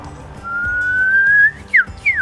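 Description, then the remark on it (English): A person whistles an imitation of an Eastern Whipbird call at the Bournda Bird Olympics bird-calling competition: a long, thin, slowly rising note followed by two quick, sharp downward whip-like sweeps, loud and clear with no talking. “I'm doing the Eastern Whipbird.”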